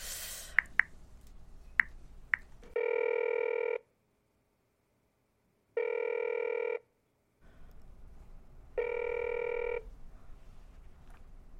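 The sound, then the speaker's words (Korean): A phone ringback tone sounds three times in long, steady buzzing bursts separated by pauses, preceded by a few short clicks like keypad presses, with no one picking up. “아, 아, 설마 내 전화 씹는 거야 마영사가?”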